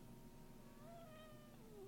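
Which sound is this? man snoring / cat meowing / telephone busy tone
cat meowing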